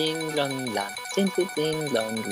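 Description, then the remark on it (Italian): A bright electronic prize-wheel jingle plays for a couple of seconds as the wheel starts, stepping between tones in a ringing pattern much like a telephone ring, fairly loud, with no one talking. “Sembra più un telefono. No, mi sembra più una ruota cinese, però va bene.”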